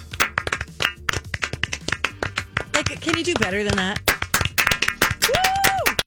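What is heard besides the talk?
hands clapping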